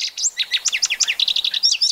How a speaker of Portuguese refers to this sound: nós estamos desde o começo de fevereiro com uma série especial aqui nos Sons da Terra cujo tema são as aves mais populares do Brasil e aquelas aves, aqueles passarinhos que têm cantos bem marcantes.